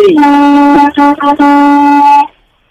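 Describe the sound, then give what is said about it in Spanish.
A loud truck air horn, sounded by a truck driver, blasts for over two seconds with a few brief breaks, a steady brassy tone that cuts off abruptly into silence. “Tócame, tócame la bocina.”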